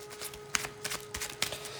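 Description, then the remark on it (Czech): Quiet tarot card shuffling and drawing: a series of crisp papery flicks and slides, irregularly spaced over a steady faint hum, with no voices. A further card, the Queen of Pentacles, is drawn. “Když se ptám, jakoby pod jakou energií, tahám další kartu, královna pentaku.”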